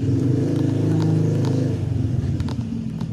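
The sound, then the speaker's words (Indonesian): A motorcycle engine drones past, its low rumble strongest at first and then easing slightly as it moves on, with faint clattering ticks on top. “wah ada suara motor”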